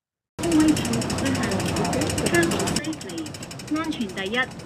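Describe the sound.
A subway escalator in Hong Kong runs with a loud, steady mechanical clatter, a rapid even rattle. Near the end, a recorded announcement voice speaks over the machinery in Cantonese, telling riders not to walk on the escalator and to hold the handrail.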